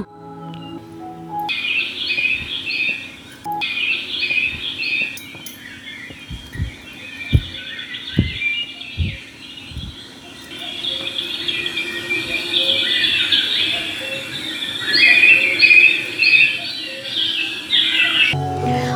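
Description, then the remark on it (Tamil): Many birds chirp and twitter continuously in a lively outdoor chorus, with high busy calls overlapping throughout and a few soft low thumps in the middle; no one speaks. “அனிமல்ஸோட சத்தமெல்லாம் கேட்டீங்களா கண்ணா இயற்கைனா இப்படித்தான் ரொம்ப அழகாக இருக்கும்டா பார்க்கறதுக்கும் இயற்கையோட சத்தத்தை கேட்கறதுக்கும் மைண்டுக்கு ரிலாக்ஸாக இருக்கும் செல்லக்குட்டி”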